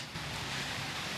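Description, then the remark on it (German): A steady, dense rushing of water from pumps in a large aquarium hall with huge water tanks at the Müggelsee, heard in the background, with a faint low hum underneath and no break in the sound. “Die große Aquarienhalle mit riesigen Wasserbecken, mit Pumpen, die rauschen, man hört es im Hintergrund.”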